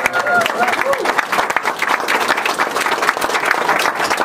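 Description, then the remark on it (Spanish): A crowd at a live event breaks into loud, sustained applause, dense rapid clapping that holds steady for several seconds, with a few voices cheering faintly underneath. “Fuerte aplauso, por favor.”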